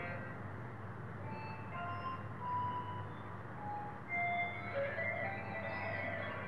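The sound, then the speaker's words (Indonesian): A keyboard synth imitating an electric guitar plays a melodic line of sustained, held notes over a dense, buzzing backing, steady and fairly loud throughout with no voices. “kan ini niru suara gitar dari keyboard gitu ceritanya”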